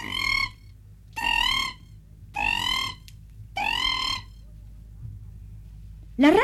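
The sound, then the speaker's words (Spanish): Four dry, high-pitched croaks of a cricket frog, a tiny green or yellowish tree frog about 2 cm long, repeat at a steady pace, each about half a second long with short pauses between, clear against a faint low hum. “Su croar seco y agudo. Por eso se le ha dado su nombre, porque semeja el canto de un grillo.”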